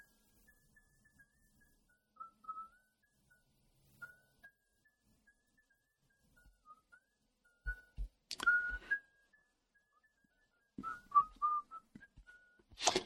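A man whistles a tune softly and steadily, the melody carrying over quiet background, interrupted by a few sharp rustling and clicking handling noises near the middle and end.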